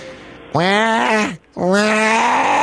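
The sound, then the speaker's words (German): A baby screams in two loud, drawn-out wailing bursts, each about a second long and separated by a brief pause, with a strained, strongly tonal cry that bends in pitch. “Okay, so und jetzt kommt der nächste Test und zwar ein Baby, das schreit.”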